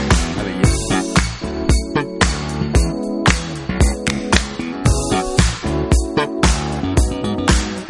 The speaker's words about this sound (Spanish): de una joya de 1982 de una gran representante del R&B de la época disco